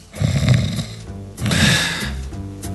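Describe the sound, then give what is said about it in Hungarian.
A voice mimics a sleeping bear's snoring: two long, loud, rumbling snores with a brief pause between them and no talking. “Ha a medve elaludt, és nem tud napi csatát tartani, vettem az adást”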